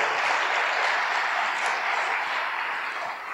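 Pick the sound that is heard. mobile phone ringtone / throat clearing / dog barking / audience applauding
audience applauding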